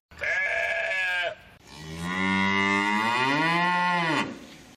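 A cattle herd moos loudly: a short low call, then a longer, drawn-out bellow that rises and falls, with no talking.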